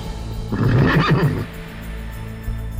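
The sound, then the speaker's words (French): A single loud whinny from a horse of crusaders travelling across Europe in scorching heat, with a shaky, wavering neigh lasting about a second before trailing off into a low, steady background rumble. “Les chevaux tirent la langue, il fait une chaleur à crever.”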